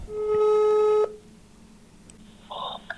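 A telephone ringing tone sounds while a call connects: one loud, steady electronic buzz lasting about a second, then a pause with a faint, brief blip of tone afterward. No one speaks.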